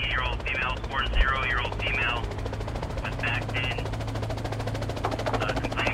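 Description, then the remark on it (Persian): A logging company's helicopter, surveying the area and then flying quickly to a logging site after hearing a call for help, makes a rapid rhythmic rotor thumping and low engine drone that run steadily throughout, loud, with indistinct voices talking over it. “هلیکوپتر یکی از شرکت های الوارکنی که تو اون منطقه نقشه برداری میکرد پیام کمک رو شنیدن و خیلی سریع به کارگاه رفتن”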